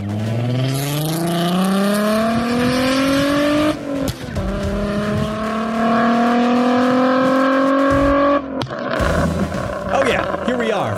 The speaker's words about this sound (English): Uh, hear those car sounds, by the way. Those could be yours.